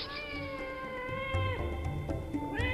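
A cat meows loudly and close by, a long drawn-out wavering cry followed by shorter rising yowls, with no talking.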